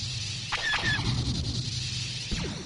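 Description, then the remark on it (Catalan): Star Wars sci-fi space movie sound effects: a low engine-like hum with electronic whistling tones and quick laser-style zaps and sweeps, moderately loud, with no talking. “Això són sons de Star Wars.”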